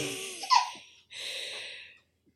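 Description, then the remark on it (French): A baby babbles and giggles in two short breathy bursts, the first with a bright squeal, the second a softer drawn-out coo, with no adult talking. “il veut participer lui aussi. Il veut dire euh, ah, qu'est-ce qui s'est passé pour lui à ce moment-là.”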